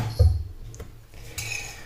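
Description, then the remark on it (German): A coffee cup being rinsed in a kitchen after the coffee is finished: a dull knock of the cup against a hard surface, then a steady wash of running water, moderately loud, with no voices. “Das heißt, ich kann jetzt wieder die Tasse hier schön ausspülen.”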